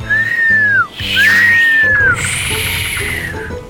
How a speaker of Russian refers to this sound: Бездумный свист на судне раньше строго карался, потому что, по мнению мореплавателей, это могло привести к непредсказуемым бедам. Вызвать совсем не тот ветер, который нужно.